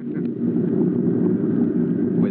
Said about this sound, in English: Tim and the chief in their seats and their safety belts securely fastened, the Great plane's motors rev up to takeoff speed.